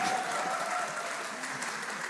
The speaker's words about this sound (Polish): Właśnie, brawa dla moderatora.